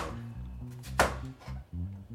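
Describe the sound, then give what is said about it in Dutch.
A knife chops through an enormous courgette on a cutting board, one sharp thunk standing out among a few softer cuts, with a low murmur running underneath. “Het is trouwens een enorme courgette.”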